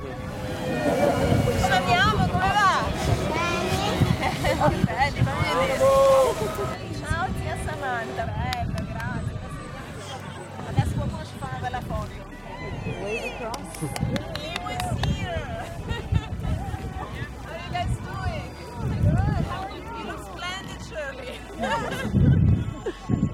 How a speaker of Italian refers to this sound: Siamo all'aperto, c'è vento e dobbiamo urlare, ma un po' riesco a registrare anche la sua voce.